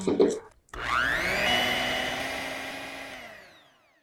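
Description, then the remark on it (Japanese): A blender grinds about two curry spoonfuls of dried sakura shrimp into powder, whirring to life after a brief pause, its motor revving up to a loud, steady grinding hum that holds for a few seconds before winding down and fading out. “では、干しエビも今分して粉々になりましたので。”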